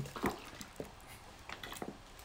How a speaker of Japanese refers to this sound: そんな勢いよくうわ無人島で飲む水うめえな